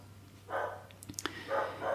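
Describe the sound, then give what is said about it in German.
Two dogs bark loudly outdoors, a handful of sharp barks in uneven bursts, muffled, with no one talking over them. “ich bin kurz irritiert, weil gerade da draußen zwei Hunde total laut bellen.”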